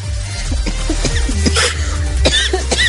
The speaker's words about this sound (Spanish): hasta me hiciste toser.